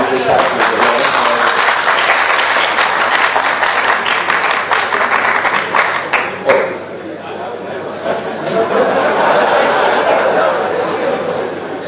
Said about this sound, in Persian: من اونایی که به عرایز حقیر با متانت و آرامش گوش میدن خب یه جماعتی هستن اونایی هم که برای آقای دکتر کف میزنن هم بالاخره یه جماعتی هستن منتها صدای اونایی که آرام نشستن کمتر شنیده میشه